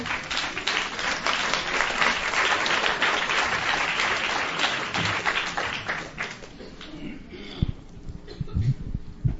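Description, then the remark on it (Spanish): A crowd applauds a speaker steadily for several seconds at a gathering of Zapatista communities, a dense wash of clapping that gradually thins and fades, leaving a few scattered claps and faint murmurs near the end. “agradezco el aplauso para poder tomar un poco de agua.”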